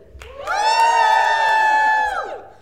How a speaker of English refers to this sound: If you would like to ruin Friends, the 90s to 2000s sitcom, please give us your best audio friendly woo! woo!